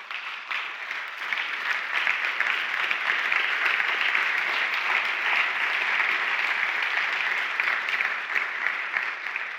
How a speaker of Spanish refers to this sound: Y nosotros podemos aplaudirlos aquí. Pero yo quiero que aplaudamos al Espíritu Santo que los está empoderando para esa, esa operación.